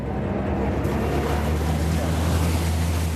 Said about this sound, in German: Wir verlassen den grünen Hügel wieder Richtung Hafen und dann fahren wir direkt hinein ins Wasser.